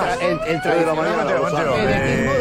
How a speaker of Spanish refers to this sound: Tenemos. Sirena.